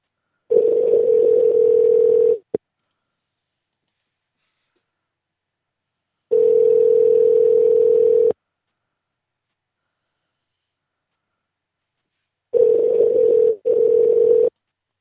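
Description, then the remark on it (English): A telephone ringback tone on an outgoing call to Saatchi Hall: three steady, buzzy low tones, each lasting about two seconds with long silent gaps between, clear with no voices. “Why do they have a normal sounding phone?”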